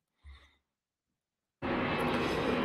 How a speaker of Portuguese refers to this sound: Eu faço mais curto, você tem um avião em cima da sua cabeça.